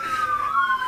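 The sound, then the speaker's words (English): An emergency vehicle siren wails steadily in downtown Hilliard, its pitch sliding down then rising again, loud, with no talking over it. “Oh, pardon the siren. We are broadcasting from downtown Hilliard.”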